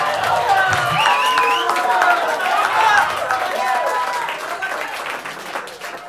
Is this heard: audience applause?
yes